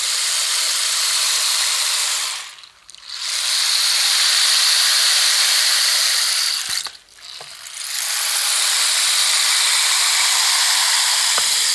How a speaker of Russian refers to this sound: Есть поинтереснее, но того же свойства шумовой музыкальный инструмент «Полосах дождя». Это такая продольная палка, что ли, внутри которой словно вода переливается тоже мелкие бусинки.